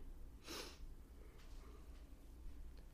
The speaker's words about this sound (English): and he's yawning now, which I didn't do throughout my interview no, for him.